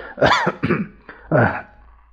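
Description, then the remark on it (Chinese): Several harsh, throaty coughs in a row from a man who stalls mid-speech: three strong bursts with a short catch between them, fairly loud and rasping, with no talking. “他一连咳嗽好几声”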